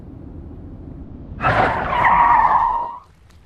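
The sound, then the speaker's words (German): An old Austin car brakes hard with a loud, sustained tire skid lasting about a second and a half, screeching over a low engine rumble before cutting off. “Wir hingen beide in den Gurten. Ich war überrascht, wie gut die Bremsen am alten Austin noch waren.”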